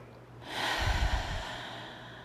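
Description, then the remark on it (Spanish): A long, slow exhalation out through the mouth: a soft airy rush that begins with a brief puff of breath against the mic, then trails off steadily for nearly two seconds, with no talking. “Dejas todo el aire salir dos.”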